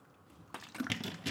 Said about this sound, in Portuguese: Tenho que beber água.